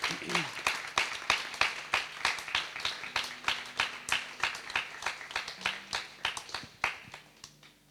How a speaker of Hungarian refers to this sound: szeretnénk egy tapsot kérni, mert ő azért keményen megdolgozott.